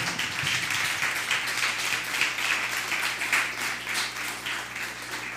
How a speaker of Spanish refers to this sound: Les voy a dar un fuerte aplauso. Es todo.